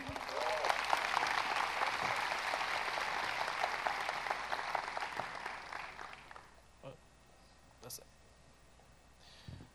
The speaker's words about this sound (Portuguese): E para isso eu gostaria que vocês dessem uma salva de palmas para o nosso querido